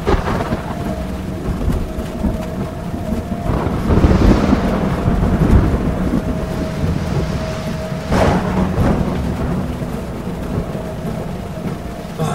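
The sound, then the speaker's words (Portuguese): A heavy thunderstorm over a dirt road through a forest, with steady, dense rain and deep rolling thunder swelling around the middle, plus a sharp crack near the end. Loud, with no voices. “Com o temporal que caía, a visibilidade era quase zero.”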